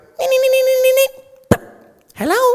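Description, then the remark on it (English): A person does a shrill, nasal impression of Pete the parrot saying hello, with strained, buzzy vocal tones, followed by a sharp click and a short rising squawk-like call, loud. “Pete would listen to everything and repeat it, okay? So he would go,”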